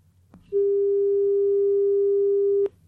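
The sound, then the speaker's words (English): A female Aedes mosquito's wingbeat tone at about 400 hertz, the mosquito held in place by a pin: a steady, unwavering mid-pitched hum lasting about two seconds, loud and alone, starting and stopping abruptly with faint clicks and a quiet background. “After doing this with males and females, the researchers found that Aedes females usually buzzed at a frequency of 400 hertz, which sounds like this.”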